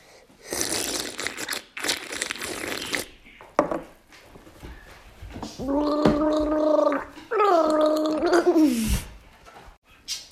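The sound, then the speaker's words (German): Loud wet slurping in two noisy bursts, then a pause and two longer gurgling, hum-like stretches that sound voiced, like sucking liquid through the mouth while making noise. “Und als letztes haben wir noch Schlürfen.”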